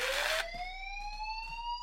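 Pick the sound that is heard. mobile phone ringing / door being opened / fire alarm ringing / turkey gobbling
fire alarm ringing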